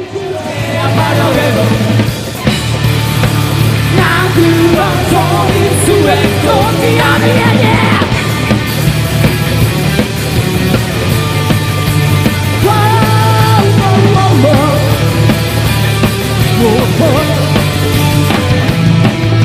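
A loud rock band song plays steadily throughout, with a dense wall of guitars, a driving bass line and pounding drums, and a shouted, energetic vocal riding on top.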